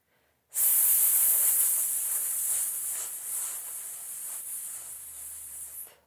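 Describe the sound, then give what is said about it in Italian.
A person takes in air, then exhales a long, steady, loud sibilant "sss" hiss as a breathing exercise with hands on the hips, held for about five seconds without a break before stopping abruptly. No talking. “Il primo esercizio cons- consiste nel prendere aria e poi emettere una S sibilante, in questo modo.”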